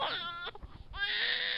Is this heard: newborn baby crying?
yes